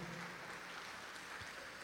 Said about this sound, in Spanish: Si le va a dar el aplauso, déselo al Señor, por favor, esta tarde.